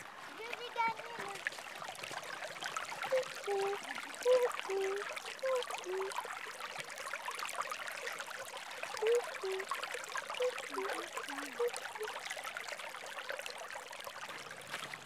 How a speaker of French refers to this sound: À présent, faisons ensemble une balade sonore avec le son de la nature. J'enregistre la rivière. On va enregistrer l'eau, l'eau de la rivière.